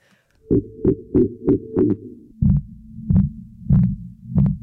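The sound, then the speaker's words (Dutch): A slowed-down bat growl call: about nine rough, throbbing pulses in a steady rhythm over a deep, buzzing drone that drops lower partway through. It is loud, with no voices. “Maar vertraag je het dan weer, dan krijg je dit.”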